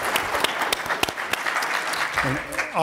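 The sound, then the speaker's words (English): Audience applause for the panelists at the end of a panel presentation, a steady wash of many hands clapping with sharp individual claps popping out, fairly loud throughout, with a voice briefly audible over it near the end. “Please help me applaud their, our wonderful panelists and their presentation.”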